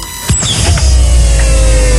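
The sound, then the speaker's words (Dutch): A sudden mechanical clunk kicks off the door of a time machine opening, followed by a steady electric whir and low hum that carries on loudly and evenly, with no voices. “Kijk, de deur gaat ook open.”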